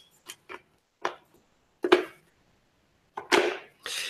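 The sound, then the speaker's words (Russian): Irregular plastic clicks and clacks as a dental jaw model is handled to demonstrate bite positions, about half a dozen sharp knocks spaced unevenly, a couple louder and rattlier, with quiet gaps and no talking. “Сейчас я покажу, как это будет на муляже нашем.”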